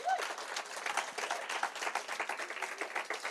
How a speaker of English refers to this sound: Give us a wave if you've been married for 50 years or more. One here, one over there, a couple over there. Let's give these people a round of applause.